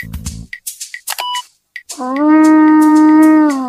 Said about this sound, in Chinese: Will this make a loud noise? Will this make a loud noise? It will. 这只小号能发出很大的声音吗？